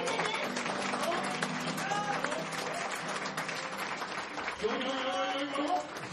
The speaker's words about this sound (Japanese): それでは皆ん拍手でくださいです